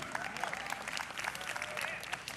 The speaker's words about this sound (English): some of you aren't clapping for that because you prefer to learn lessons through experience in your marriage.